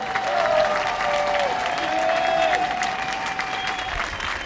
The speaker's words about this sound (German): Was ihr in den letzten Wochen, in den letzten Monaten gerissen habt, habt ihr zumindest das verdient. Eine Anerkennung durch Applaus. Gebt ihn euch einmal.